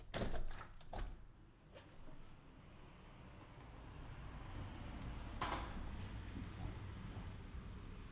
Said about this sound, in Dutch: Ik ga hier even het raam openzetten, zodat je ook de stadsgeluiden kan horen. Zo, eventjes.